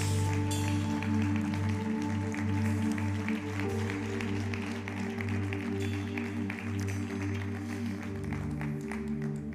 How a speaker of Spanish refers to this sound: Póngase de pie y dele un aplauso al Señor. Dele un aplauso a Jesús.